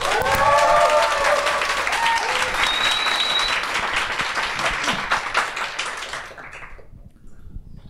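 Audience applause welcoming a guest: dense, crackling clapping from a crowd that holds steady for several seconds, with a few brief cheers or voices at the start, then thins out and fades to silence.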